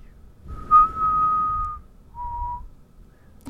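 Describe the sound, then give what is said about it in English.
A person whistles a steady, sustained note for about a second, then a shorter, softer second note after a brief pause, with no talking. “Do you know how to whistle or no?”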